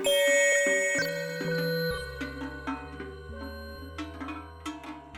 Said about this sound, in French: Quand tout le troupeau euh, porte une cloche, c'est vrai que ça nous fait quelque chose, ouais. ouais ça fait une impression. Euh. C'est vrai que euh, les cloches, ça résonne et on nous entend arriver de loin.